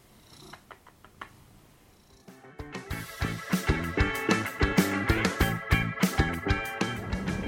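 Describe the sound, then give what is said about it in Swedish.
A cat purrs loudly and steadily, its rhythmic rumble kicking in after a couple of seconds of soft rustling as it shifts about. “Härligt omständig den där katten.”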